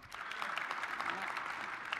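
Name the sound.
audience clapping hands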